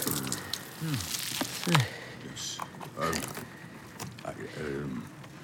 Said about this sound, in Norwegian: jeg tror heller at vi må prøve med en, en meisel. Ja. Hammer og meisel. Det er fine saker. Så Skjærer litt her. Se sånn.